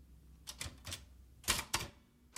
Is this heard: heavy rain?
no